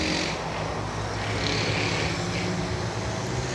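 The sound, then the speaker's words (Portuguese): A loud, noisy motorcycle engine roars as it passes, heard from a rooftop slab, its droning rumble steady and strong throughout the few seconds, with no voices heard. “E eu falei, mano, às vezes a, a gente tem que parar o que nós tá fazendo, para o que você tá fazendo e para de falar também quando passa uma moto barulhenta dessa.”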